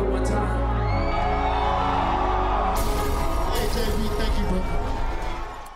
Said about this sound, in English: The crowd was pretty hyped to see him.